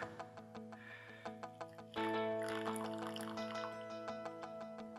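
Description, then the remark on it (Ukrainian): Coffee drips in quick, irregular taps, then a steady pour starts up, a continuous splashing stream that gradually thins out, with a steady tonal hum underneath. “Зараз вона як розільється нахуй повсюди.”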